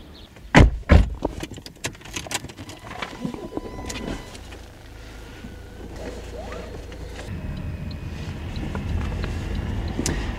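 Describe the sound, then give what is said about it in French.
A couple of sharp thuds and clicks, like a car door and keys, then a steady low engine and road rumble from inside a moving car on a very short trip, growing slightly louder. “je profite de ce tout petit trajet en, voiture pour vous demander”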